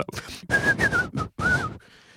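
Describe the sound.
A person whistles a short, medieval-sounding tune in four breathy phrases with small pitch glides, imitating old-style music, then trails off into a faint hum.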